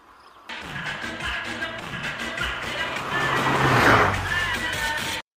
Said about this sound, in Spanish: Es una nave espacial y viene sonando reggaetón. Pero Border, mirad bien. No es una nave, es un auto. Es uno de esos autos tuñados tipo boliche con luces por todos lados y la música al palo. Escondete, escondete que ahí viene.